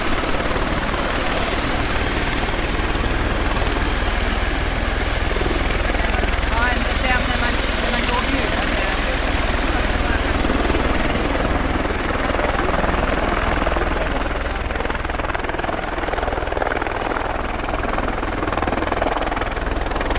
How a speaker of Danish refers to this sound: Og når I skal undersøge de her bjørne, så foregår det altså i de svenske skove, som du også lige har talt om. Og vi skal høre en lille lydbid her, hvor I øh, flyver i helikopter.